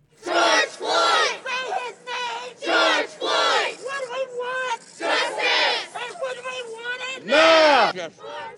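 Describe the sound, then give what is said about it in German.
A protest crowd around a trial in Minneapolis chants in loud, rhythmic bursts of massed voices, rising and falling in repeated slogan-like phrases with short gaps, ending on a long, swelling shout. “Es gab und es gibt Proteste rund um den Prozess, und so verliefen diese Proteste bislang.”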